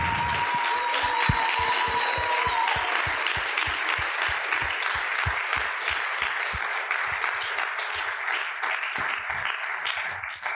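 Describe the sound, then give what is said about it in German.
A crowd at a literary reading applauds author Mirjam Müntefering before she reads from her book, dense overlapping claps at a constant level for about ten seconds, with a few faint whistles early on and the clapping thinning slightly toward the end. “Ein Applaus für Mirjam und anders geht's immer.”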